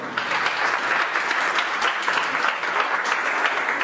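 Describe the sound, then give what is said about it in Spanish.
Steady, dense applause from an audience voting by applause for a contestant called Tímido, many hands clapping at once in a continuous wash of sound that holds at an even, fairly loud level for the full few seconds. “Buenos aplausos en la audiencia.”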